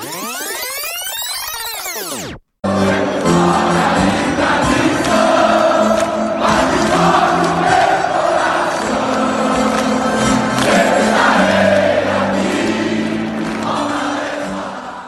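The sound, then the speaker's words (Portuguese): A short intro jingle opens with a swooping, whooshing sweep, cuts out briefly, then bursts into a loud, sustained crowd chant over music that carries steadily and eases slightly at the end. “Toca a vinheta.”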